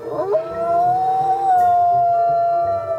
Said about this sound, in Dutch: Een roedel wolven laat duidelijk merken en horen dat zij bovenaan staan in de pikorde.